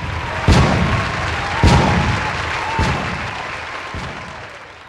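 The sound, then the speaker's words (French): Four booming cannon shots of a 21-gun salute marking Burundi's independence, fired at a steady pace about a second apart, each echoing away over a continuous crowd murmur or applause-like background. “Trois pas en arrière, salut militaire, 21 coups de canon et le Burundi était indépendant.”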